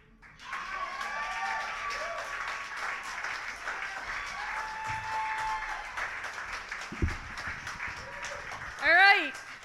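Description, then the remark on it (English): A crowd claps steadily and loudly throughout, with whoops and shouted cheers rising over the applause and a sharp, high whoop swelling near the end, as the audience keeps clapping and hollering at the end of the second round of semifinals. “Audience, keep clapping, keep hooting and hollering.”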